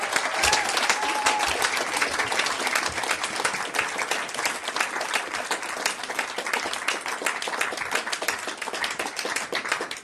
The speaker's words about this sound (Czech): Takže to stálo za ten potlesk, jo?